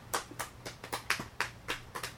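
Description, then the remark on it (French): Applause made of about nine distinct, evenly spaced handclaps in a steady rhythm, fairly quiet, with no voices over it, as audience members answer by clapping whether they have a cell phone. “Est-ce qu'il y en a parmi vous ici qui ont un téléphone cellulaire par applaudissement?”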